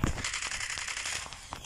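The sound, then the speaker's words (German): Rapid bursts of video game gunfire as a player shoots continuously at an enemy, a dense stream of sharp cracks with a few louder shots standing out, fairly loud with no talking. “Ja, ich schieße die ganze Zeit auf ihn.”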